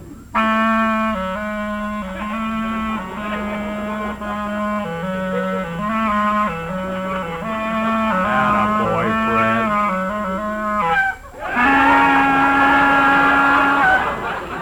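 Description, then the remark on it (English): A clarinet, played as part of a new act, plays a steady melody of sustained, stepping notes for about eleven seconds, breaks off briefly, then returns with a loud, bright held note to close. “ready with your clarinet, Fred?”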